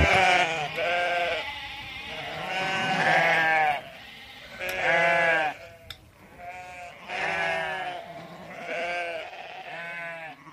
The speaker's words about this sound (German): Das ist ein kleines, ähm, verschlafenes Dörfchen an der Bergstraße. Und gerade als wir aus dem Bus ausgestiegen waren, begegnete uns tatsächlich eine riesengroße Schafherde, die blökend über den kleinen Marktplatz hinwegzog.